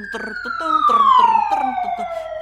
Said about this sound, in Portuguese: Ui, estamos a ouvir sirenes. Ui, as sirenes. É, é caos, é caos.